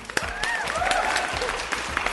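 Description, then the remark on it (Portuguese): A crowd applauds steadily, a dense wash of many hands clapping at an even loudness, with a few faint voices and whistle-like tones rising through the noise, welcoming a guest who is a student of the Latin American Institute of Islamic Studies. “Senhoras e senhores, uma salva de palmas”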